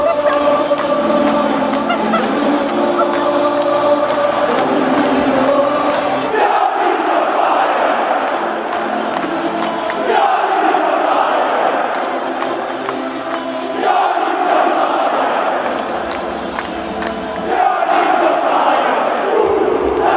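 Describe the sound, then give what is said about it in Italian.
A large crowd of AC Milan fans sings a chant in unison to their coach Pioli, loud and sustained, with a steady rhythmic melody rising and falling over about twenty seconds and brief swells between phrases. “Ecco, visto che parliamo di festa, io vorrei iniziare proprio con, con il coro dei tifosi milanisti al suo allenatore Pioli.”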